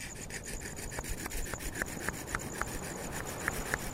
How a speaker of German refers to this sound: Hier oben habe ich mich auf einen breiten Ast gesetzt und schnitze meine Masken. Viele Masken. Masken des Wassers. Masken der Krankheit, Masken der Schlange und des Tigers.